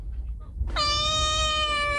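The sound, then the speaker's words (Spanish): A single drawn-out cat meow from a WhatsApp message begins abruptly after a brief quiet moment and holds steady and loud, with a low background rumble underneath. “mira este mensaje del gato, gatico.”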